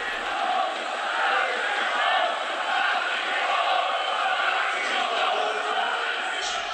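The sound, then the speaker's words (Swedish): Opposing supporters at a German third-division match involving Preussen Münster applaud the player Quadvo after he called out racist abuse from the stands, and chant "Nazis raus" together, forming a dense, continuous roar of many voices that holds a steady, loud level for about seven seconds. “Och det är alltså motståndarsupportrarna då som applåderar honom. Det är de då som skanderar på läktarna.”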